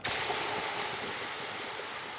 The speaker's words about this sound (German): nimmt jetzt den immer noch qualmenden Eisstock und taucht ihn in einen Eimer mit eiskaltem Wasser.